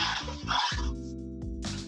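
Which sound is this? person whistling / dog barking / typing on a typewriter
dog barking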